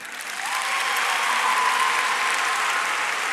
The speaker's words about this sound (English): If you see a young lady kind of looking into the distance, give me a clap. Fascinating. I feel like that's slightly louder. If you can see both, give me a clap.